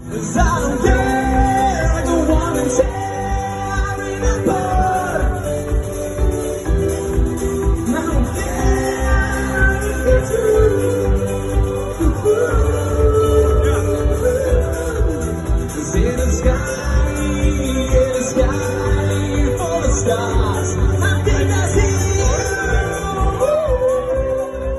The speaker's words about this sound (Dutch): En dan mochten alle bands drie nummers spelen. En de beste band, volgens een jury, die kreeg dan een wisselbeker. En wij wonnen die, zo waar. En we hebben daar een fragmentje van, geloof ik.